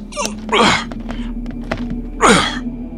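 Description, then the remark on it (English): Someone straining against a locked door: two heavy thumping shoves about two seconds apart, with rattling clicks and knocks in between, and no talking. “Uh, it's locked. Let me try.”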